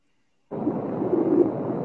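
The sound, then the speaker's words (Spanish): Thunder from a heavy storm breaks in abruptly after a brief silence, then continues as a loud, steady low rumble that does not fade before the end. No one speaks. “Está fuertísima la tormenta. ya estoy oyendo los tronidos.”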